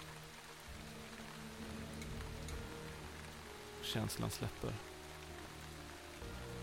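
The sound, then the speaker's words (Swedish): Steady rain patters on an umbrella, a dense, continuous drumming throughout, while a voice briefly speaks a few words near the end. “Regnet smattrande mot paraplyet betydligt.”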